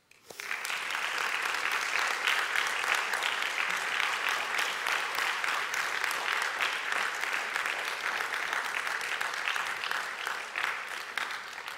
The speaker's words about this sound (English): And to the memory of Don Mueller, especially, but to all those who have worked so hard behind the scenes to make this weekend a reality for you, would you offer him and them a dignified and thoughtful applause?